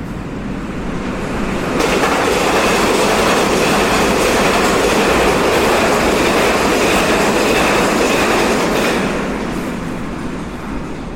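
A souped-up railway handcar used as a riot car, carrying six men, with a top speed of 80 miles an hour, rushes by on the tracks, its loud rumbling clatter swelling up suddenly, holding for several seconds, then fading away. No one speaks.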